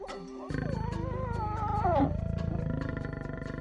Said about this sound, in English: We're listening to the sounds of one of nature's master predators, the African lion. To know what the future holds in store for the lion and other predators, we need to understand their role in their ecosystem.